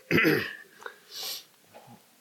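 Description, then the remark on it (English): A single loud cough bursts out, followed by a breathy exhale and a soft, low throat clearing as it fades. No one speaks. “Turn around and cough and pray.”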